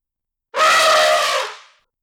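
An elephant lets out a single loud, anguished scream, a harsh, brassy blare lasting just over a second before it trails off into silence. No one speaks.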